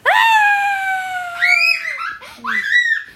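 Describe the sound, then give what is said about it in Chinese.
A voice imitates a mother's terrified scream, "Ah!": one loud, long, high-pitched shriek held for nearly two seconds, then a few shorter wavering cries that rise and fall. “妈妈听了，发出了可怕的尖叫：“啊！”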